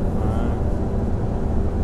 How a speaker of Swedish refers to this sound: Eh, detta för att eh, bussen är också full med folk. Alltså det står i gången och det är en stark buss som klarar de här stigningarna för att det är inte små berg vi kör upp för här.